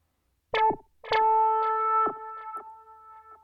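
A sustained, buzzy vocal-like tone treated with slapback delay, its attack repeating in quick echoes about every half second and slowly fading. No talking.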